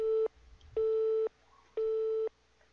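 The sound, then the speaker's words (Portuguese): A phone busy tone after a dropped call: loud, steady mid-pitched beeps about half a second long, repeating in an even on-off rhythm with short gaps between them. No one speaks. “Oxe, choro que caiu?”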